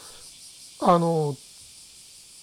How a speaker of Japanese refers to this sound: だからあの、えーと、例えば今僕が喋ってるのでももう後ろのセミの声が、うん、あのやっぱどうしても入ってしまうんですよね。